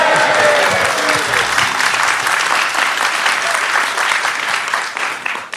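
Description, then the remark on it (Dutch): A large audience in a hall claps steadily and loudly as guests are welcomed, a dense wash of applause that holds for several seconds before starting to taper off. “Ik zie hier, eh, als ik mijn hand aan mijn eh, hoofd zet, zie ik nog heel veel mensen in de zaal zitten zijn nog wel stil.”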